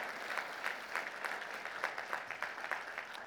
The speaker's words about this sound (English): It is so good to be with you guys, and also it's so refreshing um, to hear really good music and good singers. And so, yeah, let's give them a hand of applause, please.